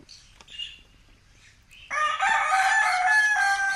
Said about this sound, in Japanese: ラジオネーム月見ステーキが送ってくれた鶏とかいろんな動物の鳴き声が聞こえです